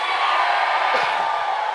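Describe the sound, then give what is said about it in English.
A large audience screams and cheers after being asked to scream if they have victory, a dense, sustained roar that fills the whole moment, steady and loud, with a few voices briefly rising above the wash near the middle. “You're sitting next to somebody that got victory. If you got it, scream at me, please.”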